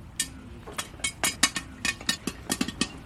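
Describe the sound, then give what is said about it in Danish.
Popcorn kernels popping in quick, irregular bursts, a dozen or so sharp cracks over a low steady hum, fairly loud, with no voices. “Det er lyden af en helt speciel slags frø, der popper.”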